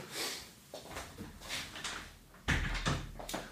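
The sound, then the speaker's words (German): A home door is shut with a soft thud as family members arrive home, followed by rustling, shuffling movement and a few small knocks and clatters. “ich muss mal eben, Leo und meine Frau sind gerade nach Hause gekommen, um die Tür zu machen”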